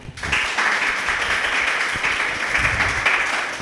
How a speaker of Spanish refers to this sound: Les pido un aplauso, por favor, para Mariana.